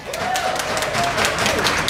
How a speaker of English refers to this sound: Is, is how many people are here for the board game thing? Oh, give yourselves a round of applause.